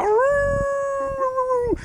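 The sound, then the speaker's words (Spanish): A man, a member of a rock and roll band, imitates a wolf howl, one long sustained wail that slides up, holds steady, then drops away at the end, loud with no talking. “el auténtico hombre lobo del rock and roll.”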